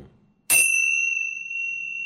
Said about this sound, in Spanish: Uy, la campana la soné bastante cerca del micrófono. Eso es. Muy bien. Entonces, con esta campanita, vamos a la pausa.